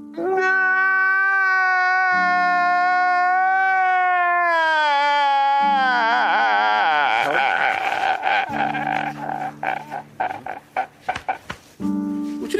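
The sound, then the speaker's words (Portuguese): A woman cries loudly, one long, high, wavering wail that breaks into choppy, gasping sobs toward the end. “ela chora.”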